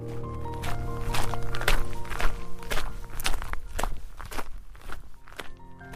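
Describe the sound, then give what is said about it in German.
Steady footsteps of two people walking on foot to the train station to collect a suitcase, at an even pace, each step a soft thud with a slight crunch, repeating about twice per second over a low continuous hum. “Da es nicht sehr weit war, gingen wir zu Fuß.”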